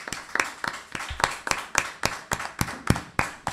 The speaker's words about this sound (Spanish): Así que un aplauso aquí